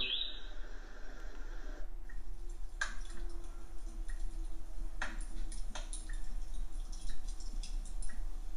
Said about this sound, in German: Und so eine Art Lagerfeuer.